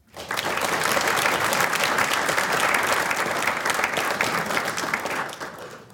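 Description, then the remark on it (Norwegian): An audience applauds four panelists at a discussion on digitalization in Northern Norway, steadily for several seconds, a dense, even patter of many hands clapping at once that starts abruptly and tapers slightly at the end. “Så disse fire jeg syns vi skal gi dem en applaus.”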